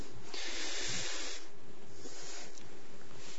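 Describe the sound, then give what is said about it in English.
A drink bottle top is twisted off with a sustained, bright hiss lasting about a second, followed by quieter rustling and a brief second hiss. No one speaks. “and you, you take the top off like I did just now, and you, and you have a controlled sip because it has to last all day.”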